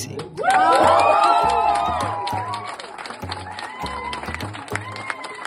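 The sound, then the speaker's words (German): A large crowd of supporters of the 13th AHV pension initiative in Switzerland bursts into loud, jubilant cheering after the initiative is accepted in a vote, with many voices whooping and shouting together, then settles into a sustained celebratory roar with scattered clapping. “Der Jubel bei den Befürworterinnen und Befürwortern war riesig.”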